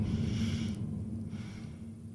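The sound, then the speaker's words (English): A stifled yawn: a muffled, breathy nasal exhale held back behind closed lips, fading after under a second into a low, steady hum with no talking. “You, look at you stifling a yawn.”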